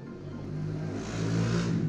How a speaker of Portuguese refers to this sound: Passou uma moto aqui, meu. Passou uma moto aqui.